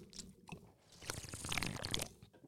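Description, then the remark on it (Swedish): Someone gulps a Red Bull energy drink from a can, with wet swallowing and slurping sounds that swell louder in the second half. No one speaks. “Liten, lät fan som mm. du drack halva burken.”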